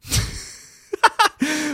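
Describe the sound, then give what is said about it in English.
One sharp, explosive sneeze bursts out and trails off, followed by a few brief voiced sounds and a longer held vocal tone. “Oh, bless you.”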